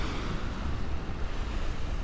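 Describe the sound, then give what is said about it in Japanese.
Steady, rushing surf washes continuously onto a sandy beach, recorded while sitting on timber on the sand facing the sea. A broad roar of breaking waves with some wind buffeting the microphone and no voices. “波の音をお届けします”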